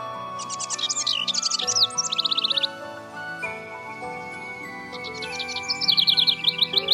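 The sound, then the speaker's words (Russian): A small songbird, a linnet, sings under a window, a bright, fast warbling song in two bursts of twittering trills, clear, over a soft sustained musical background. “но оказалось, что эта маленькая коноплянка пела под его окном.”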